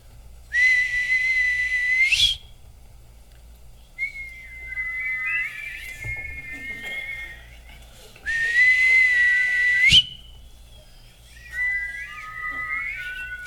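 Human whistling in two exchanges: a loud, steady held note answered by a softer, warbling melodic phrase, then the same again. No talking.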